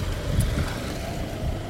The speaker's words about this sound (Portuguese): Gente, isso é uma moto, tá? Falei que ia ter, né?